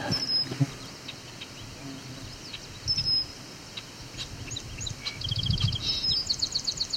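A red-winged blackbird gives sharp, harsh alarm calls in short bursts, with a rapid chattering series of high notes toward the end over a low background rumble and other faint bird chirps.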